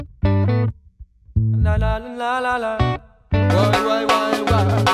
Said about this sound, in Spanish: Voy a poner solamente el intro de ritmo que pesa.